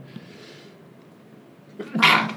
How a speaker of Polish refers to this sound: Teraz kichnę.